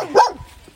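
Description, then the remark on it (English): A single sharp dog bark rings out, brief and fairly loud, then fades into quiet room tone. “Excuse the dog.”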